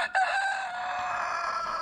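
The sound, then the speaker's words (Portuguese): A rooster crows loudly on the Amanhecer Sonora radio morning show, one long sustained call with a strained, harmonic tone that holds steady for nearly two seconds. “O galo. o galo cantando já,”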